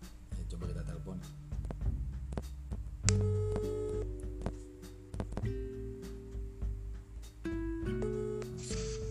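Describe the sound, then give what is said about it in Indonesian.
A phone's ringing tone, a call placed to a friend in Medan, plays as steady, sustained tones that shift pitch a few times. It is moderately loud over faint background noise and clicks. “Ya, kita coba telepon teman kita dulu aja kali ya yang di Medan kan.”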